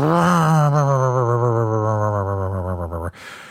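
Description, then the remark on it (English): A man's voice, off camera, does a loud, buzzy, sustained imitation of a revving chainsaw as a film sound effect, holding a wavering, growling tone for about three seconds before cutting off abruptly. “they also have to have the chainsaw massacre dude, uh, Leatherface, like running after people and have like, you know, somebody off camera going”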